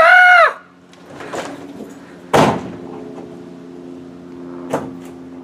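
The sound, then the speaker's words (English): A bearcat (binturong) gives a loud, high, wavering call lasting about half a second, followed by a few sharp knocks and rustles over a low, steady hum. “Hey, did you hear that? You know what that was? That was a bear cat.”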